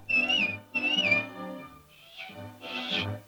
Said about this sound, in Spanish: Como Pinocho era muy inocente y siempre se metía en problemas o se dejaba engañar, por lo que Pepe Grillo le recomendaba, a veces sin resultado, que cuando tuviera un problema simplemente diera un silbidito.